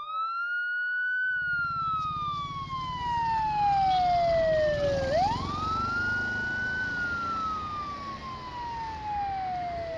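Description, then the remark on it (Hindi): A loud police car and ambulance siren wails as they arrive and stop at a hillside neighbourhood one morning, the pitch sliding slowly down and then sweeping back up, over a steady low rumble of engine and road noise. No one speaks. “एक सुबह एक पुलिस की गाड़ी और एक एम्बुलेंस उस पहाड़ी के मोहल्ले पर आकर रुकी”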